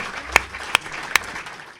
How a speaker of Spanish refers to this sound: Yo creo que esto, necesita ya un aplauso de primeras, que quede bien claro.